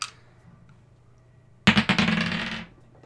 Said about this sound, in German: Würfeln wir mal auf Lustigkeit für heute, für den zweiten Teil.